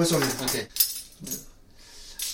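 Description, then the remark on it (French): Cutlery clinks and rattles as it's handled, a burst of metallic jangling followed by a few sharper, isolated clinks, with faint voices in the background. “Ok, ça c'est bon, les couverts.”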